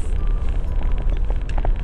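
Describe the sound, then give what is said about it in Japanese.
A steady low rumble fills the inside of a car just entered, its windows coated with ice at an outside temperature of minus 2°C, with faint scattered knocks and higher clicks over a constant droning hum and no one speaking. “今ね車乗ったとこなんですけれどもね窓ガラスの、えー、窓ガラスの表面というのかなについたねあの水滴が水滴のように見えてね氷でしたなのでねあのワイパーでこすってもねガーリガーリっていうきりでねその水滴が取れないよっていうそんな感じになっています”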